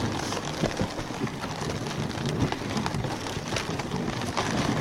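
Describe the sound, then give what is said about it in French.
A reindeer pulls a sled carrying a rider across a snowfield surrounded by snowy mountains: a steady scraping hiss of runners with scattered soft crunching steps, continuous and even throughout, with no voices. “Donc le bruit que vous entendez là derrière moi, c'est bien le bruit d'un traîneau quand un renne avance.”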